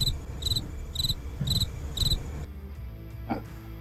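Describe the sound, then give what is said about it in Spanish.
A cricket chirps four times in a steady, evenly spaced rhythm, each chirp a bright high-pitched trill, before falling silent, leaving only a low background hum. “Oye, un grillo.”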